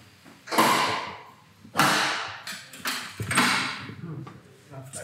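A heavy isolation cell door opens with two loud metallic bursts that scrape and clank, followed by a stretch of softer rattling and shuffling movement.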